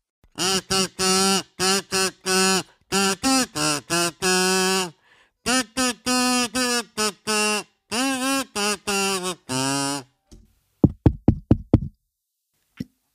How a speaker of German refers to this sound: klopf, klopf.